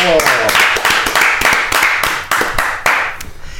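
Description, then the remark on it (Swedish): A guest, Martin Melin, a police officer, author and TV personality, claps for himself as he is introduced. He gives about ten sharp, even hand claps at a moderate pace, with a brief vocal exclamation at the very start and a murmur of voice underneath. “Det är en kille som applåderar åt sig själv.”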